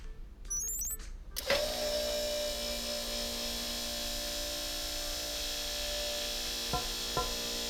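A short chirping beep, then a steady, loud motorized whir runs continuously as metal storm shields are closed early, with two sharp mechanical clunks near the end and no voices.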